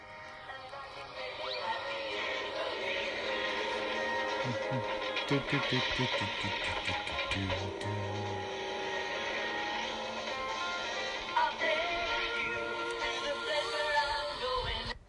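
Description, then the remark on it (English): A sweet, pretty love song set to a car chase plays steadily for its whole length, a melody carried over full, sustained instrumental backing at an even, moderate loudness, with no talking over it. “It's kind of this sweet love song, and meanwhile there's a uh, car chase going on.”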